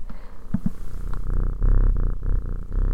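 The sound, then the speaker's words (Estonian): A cat named Tiger purrs loudly, a steady low rumble pulsing in a slow breathing rhythm, with no voices over it. “sest et kui me siin räägime ööhäältest ja sellest, et meil on siin üks väga kõvasti nurruv tiiger.”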